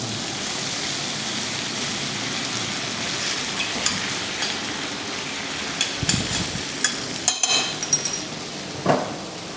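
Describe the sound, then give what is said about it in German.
Nockerl dumplings sizzle in a frying pan with a steady crackling hiss, broken by a few sharper clicks and light clatters of a utensil toward the end. “Da drüben brutzelt die nächste Pfanne für den Nockerl.”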